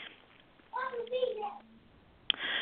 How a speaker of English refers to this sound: I love it that we can hear the kids in the background, right? I think that's awesome.